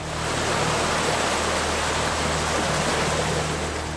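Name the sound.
stream water flowing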